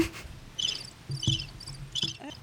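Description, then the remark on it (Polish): Birds chirp in about four short, rhythmic bursts of high-pitched twitters, fairly soft over a low background hum, with no one talking. “I ptaszki znowu. Teraz ćwierkały ładnie”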